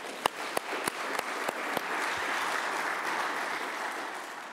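A crowd in a hall applauds steadily for people at home. Over it, several sharp, evenly spaced claps ring out near the start, then the sound settles into a dense, continuous patter of clapping hands.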